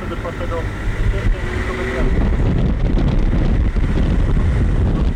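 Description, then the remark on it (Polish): Wind buffets a microphone held out of a window, a loud, continuous rumbling roar of gusts that swells in partway through. A voice is faintly audible underneath in the first moments. “No nie, no bo będzie przesterowany z uwagi na wiatr, także już nie będę.”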